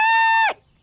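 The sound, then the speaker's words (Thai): A loud, bright sustained cry, a voice imitating a rooster's crow as a wake-up call, holds one high note for half a second and then drops off sharply in pitch, leaving silence. “ตื่นกันได้แล้วนะนี่คือเสียงทรงพลังจากนายไก่ต๊กสุดเจ๋งวีรบุรุษผู้ช่วยชีวิตนินจา”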